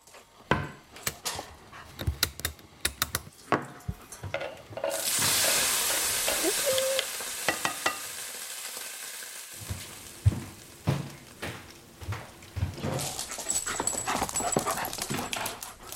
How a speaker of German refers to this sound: Da ist ein Hund.